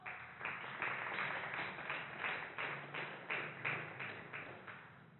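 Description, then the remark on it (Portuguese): A crowd claps together in praise of the Lord in a steady, rhythmic beat, roughly two claps per second, over a dense wash of hand noise. It sounds muffled, with no one speaking. “Olha, palmas para o Senhor.”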